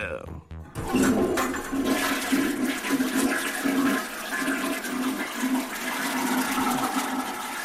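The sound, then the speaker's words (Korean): A toilet flushes with a sudden loud rush of water that swirls and gurgles steadily for several seconds, a broad hissing wash with a low churning undertone, and no voices. “어 그냥 시원하게 내려가네 다들 비켜 변비 비켜 다들 비켜”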